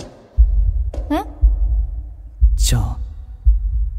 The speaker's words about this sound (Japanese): この心音って。